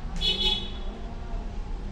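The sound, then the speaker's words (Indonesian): A brief, high-pitched car horn honks once near the start, then fades into a steady low rumble of background noise. “klakson”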